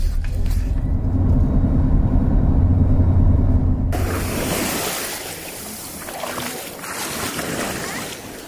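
A low, steady rumble like wind or a motor gives way midway to the broad, hissing wash of ocean waves breaking on a sandy Atlantic beach in Cameroon, fairly loud and continuous with no talking.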